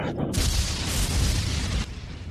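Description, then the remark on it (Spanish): A sudden, loud explosive boom bursts in and rumbles on for over a second, like a firecracker blast, then cuts back to a lower background roar. Not real firecrackers, but noise made to imitate them. No one speaks. “No son petardos, pero bueno, simulan serlo.”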